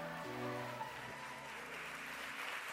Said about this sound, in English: Amen, amen. Good morning. Good morning. Keep clapping for hope. Huh? Keep clapping for hope.